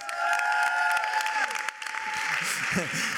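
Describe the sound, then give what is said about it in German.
An audience claps steadily, a dense wash of applause filling the whole clip, with a few whoops and voices mixed in underneath. “Lass uns allen, die per Podcast eingeschaltet haben, einen Applaus geben.”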